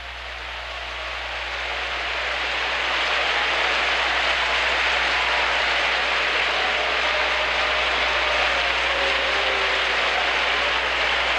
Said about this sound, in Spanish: Démosle un aplauso al Señor con alabanzas.